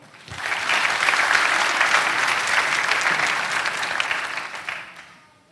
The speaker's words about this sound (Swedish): Amen. Ska vi ge honom en stor applåd?